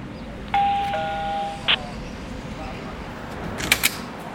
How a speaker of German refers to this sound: Ich klinge mal jetzt hier bei der Rezeption, Tagespflege, ich klingel einfach mal überall.